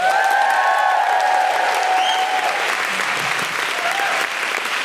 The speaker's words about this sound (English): Sindhu's going to do some stand up comedy for you now. Is that exciting? Yeah. Then please put your hands together and make general woohooing noises for Sindhu Vee.